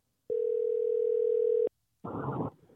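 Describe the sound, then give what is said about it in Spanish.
A steady telephone dial tone hums for over a second while a call to Mexico is being placed, cuts off, then a brief burst of crackly line noise follows before fading to a faint hiss. No one speaks. “A ver, espérame un segundo, déjame tratar de conectar. A ver, no sé por qué no entra la llamada a México.”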